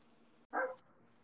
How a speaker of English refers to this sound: Was that a dog?